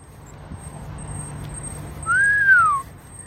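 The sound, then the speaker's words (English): A mosquito anti-loitering alarm, a small gray box under a bridge in Oshawa, east of Toronto, recorded in a TikTok video, gives a thin, piercing high-pitched tone that holds steady throughout, over low background rumble, with a brief louder whistle-like sweep rising and falling near the end. “It's officially called a mosquito anti loitering alarm.”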